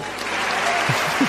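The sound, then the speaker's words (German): The audience at an orchestra concert of Sonic video game music applauds steadily: a dense, even wash of clapping that holds at a constant loudness throughout, with a couple of faint low murmurs mixed in near the end. “Das war das Publikum.”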